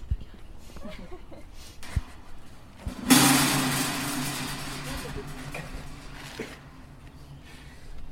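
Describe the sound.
Barricades being set up in front of doors as a blockade is prepared: a sudden loud scraping, grinding burst of heavy objects being shifted, fading over a few seconds, with faint background voices and bumps before and after.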